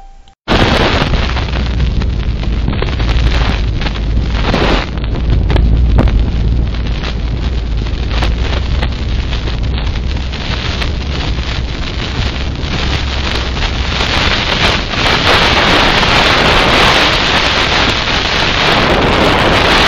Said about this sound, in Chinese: 后面这一段话就是实际测试在地方边的噪音，风切声，它其实是非常的大声。